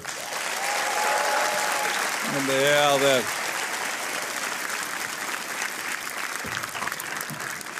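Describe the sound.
Sustained audience applause, a dense wash of clapping throughout, with a man's voice calling out briefly over it partway through before the clapping carries on steadily.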